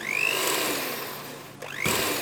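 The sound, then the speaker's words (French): A kitchen blender that is not working whines loudly, then bogs down and nearly stalls before spinning back up unevenly, its pitch sliding as it sputters. No one speaks. “Et maintenant, un autre problème, le mixeur ne fonctionne pas.”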